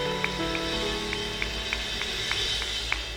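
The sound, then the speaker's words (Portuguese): An audience applauds the Lord loudly in a worship service, a dense, steady wash of clapping with a regular beat running through it, while sustained keyboard notes hold underneath and no one speaks. “Aplauda ao Senhor, bem forte, Deus abençoe, amém.”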